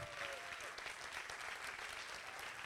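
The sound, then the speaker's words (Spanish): A church audience applauding the Lord, a dense wash of many hands clapping at once with no pauses, sustained and fairly loud throughout the short stretch. “¿Por qué no le da un aplauso fuerte al Señor?”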